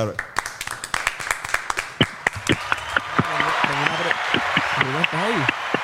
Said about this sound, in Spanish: Un aplauso, un aplauso.